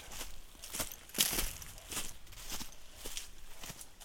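Footsteps crunch and rustle through dry dead leaves at a steady walking pace, each step a crisp crackling burst, with no one speaking.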